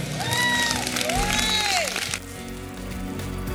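A church audience claps and cheers together to give God a hand clap, a dense burst of applause with whoops and raised voices that fades off after about two seconds, leaving a low murmur.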